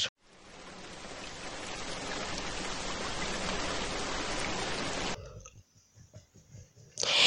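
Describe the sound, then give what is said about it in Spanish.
A steady, dense hiss of falling rain fills about five seconds, then cuts off abruptly, leaving faint scattered sounds before a brief burst of noise at the end. “Justo cuando va a salir a jugar balón con sus amigos, empieza a llover.”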